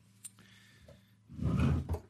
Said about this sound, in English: is currently going through his drawers. That's the way to say it.